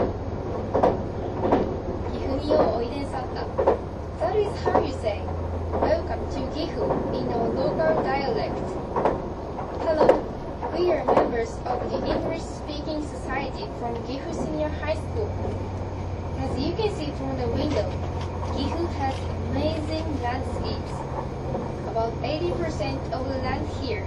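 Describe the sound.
The engine and motor of an HC85 series hybrid train, the limited express Hida No. 1 from Nagoya to Takayama, hum steadily inside the Green Car: a low continuous drone with rolling track noise. Muffled voices murmur faintly in the background throughout.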